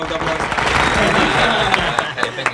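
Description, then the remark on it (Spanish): A crowd applauds invited guests steadily, a dense crackle of many hands clapping at once, loud, with a few sharper claps standing out before it thins slightly at the end. “Un aplauso para ellos.”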